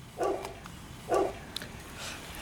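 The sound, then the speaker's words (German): A dog that has just been woken barks twice on Kaplan-Schlicker-Straße by a former churchyard, two short, evenly spaced woofs about a second apart, fairly quiet, with faint background noise and small clicks around them. “Nils, hast du gerade den Hund geweckt?”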